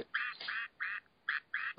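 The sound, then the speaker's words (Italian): A toy rooster, a small object kept at home, crows in a series of five short, nasal, squawking bursts with brief gaps between them. It is moderately loud, with no talking. “No, sono degli oggettini che ho in casa.”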